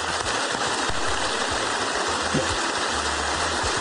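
Loud, steady applause from a large crowd, a dense wash of clapping that holds at an even level for about four seconds with no voices over it.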